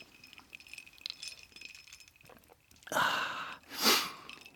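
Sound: drinking glasses clinking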